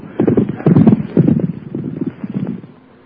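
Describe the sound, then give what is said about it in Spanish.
The hooves of a saddled horse clip-clop in a steady, uneven rhythm of muffled thuds, fading out after a few seconds, with a faint breath of wind behind them. “Hay un caballo ensillado. Y no está malo.”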